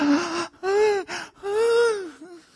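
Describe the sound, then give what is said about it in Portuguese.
A voice makes a run of three or four breathy, voiced gasps with rising and falling pitch, fairly loud, like excited groaning, with no words spoken. “Você ouve os verdadeiros gemidos inexprimíveis do sujeito.”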